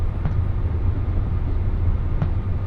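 A steady low rumble of the JR West limited express Yakumo No. 3 running on the Hakubi Line from Okayama toward Bitchū-Takahashi, heard from inside the carriage, with continuous wheel and motor drone and a couple of faint clicks from the rails; no one speaks.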